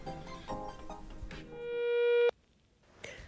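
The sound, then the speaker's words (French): A single steady electronic beep, like a voicemail prompt, sounds for under a second at the tail of a busy musical passage, swelling slightly before cutting off sharply into near silence; the beep signals the start of a voice message left for Sud-Ouest on Facebook. “La parole est à vous, après le bip sonore.”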